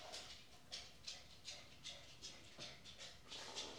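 A dog pants quickly and steadily, with about ten breathy huffs in a regular rhythm. The sound is fairly soft, and no one speaks.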